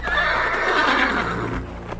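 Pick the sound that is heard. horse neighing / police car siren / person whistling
horse neighing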